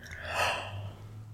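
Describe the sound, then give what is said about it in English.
A single breathy yawn swelling into a soft airy rush and then fading out over a faint low hum, with no talking. “Sorry, I keep yawning.”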